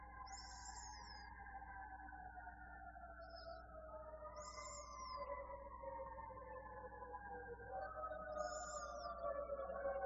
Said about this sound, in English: you hear those sirens? You can. Uh, yet another fire. Oh, quite nearby.